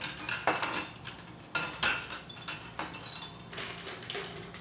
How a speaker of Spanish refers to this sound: Vamos a agregar nuestro abundante hielo.